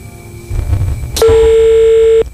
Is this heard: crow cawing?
no